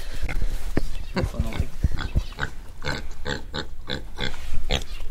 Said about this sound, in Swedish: Ja, här har vi Precis, grisarna. Här har vi våra grisar.